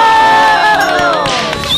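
An audience cheers and applauds loudly, many overlapping voices whooping and shouting in high, sustained tones that hold steady throughout the short burst.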